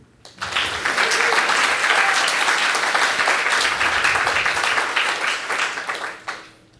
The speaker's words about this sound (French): On applaudit.